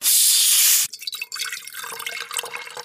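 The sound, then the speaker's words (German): A loud, steady rush of pouring liquid stops abruptly, followed by a dense crackle of fizzing bubbles as sparkling water settles in a glass, with no talking. “Ein Wasser mit Bubbles, okay, wird gemacht.”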